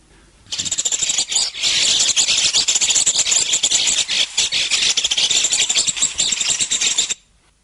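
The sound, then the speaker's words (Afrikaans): Bronze mannikin calls: a dense, continuous stream of high, buzzy chattering notes for about seven seconds, fairly loud, with no voices. “kom ons luister net gou na sommige van die geluide vinnig. Die gewone fret eerste.”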